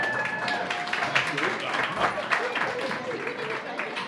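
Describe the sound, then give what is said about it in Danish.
An audience applauds volunteers at the annual Volunteer Friday event in Fredensborg Municipality, Denmark, a dense wash of many hands clapping at a fairly loud, even level for a few seconds, with a faint voice or two mixed in. “Ja, lad os give en stor hånd.”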